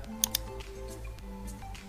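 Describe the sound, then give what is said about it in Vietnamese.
Two quick, sharp computer mouse clicks close together near the start, as a right-click is made and End Task is clicked to close two running programs, then a soft steady hum with no further sounds and no talking. “Nên bây giờ mình cần phải tắt hai cái này đi thì mình uh, kích chuột phải vào xong mình ấn vào chữ end task được chưa”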